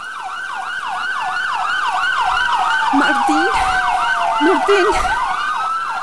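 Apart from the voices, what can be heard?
ambulance siren arriving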